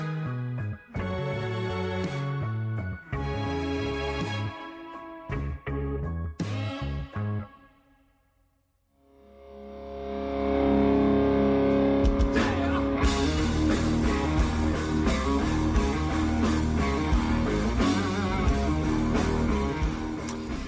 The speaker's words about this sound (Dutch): Ehm, ja, we horen hier geluiden van een, eh, van een festival. En eh, we gaan even terug naar 9 juli 2017. Ehm, dit is in de nacht, hmm. net na 12 uur.